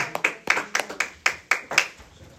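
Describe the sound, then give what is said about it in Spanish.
A church audience claps in praise of God in a steady, moderately paced rhythm, about ten sharp, bright claps ringing out in a loose unison with no talking over them. “Y aplausos también.”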